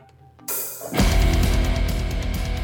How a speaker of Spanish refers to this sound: Vamos a escuchar esta banda que es alemana